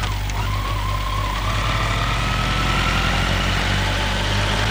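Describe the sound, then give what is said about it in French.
A scooter engine runs steadily for the whole stretch as it rides through the streets, a constant droning hum with a faint rising whine, and no voices. “Elle n'est pas très rassurée et se demande ce que doivent penser les gens en la voyant. Elle sur un scooter.”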